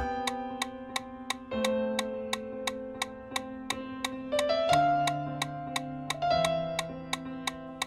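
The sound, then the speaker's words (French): A metronome ticks in a steady, brisk rhythm of about three sharp clicks per second, setting a running cadence of one step per beat, playing over sustained electronic chords that shift in pitch every couple of seconds. “concentrez-vous bien sur le rythme, un pas à chaque battement du métronome.”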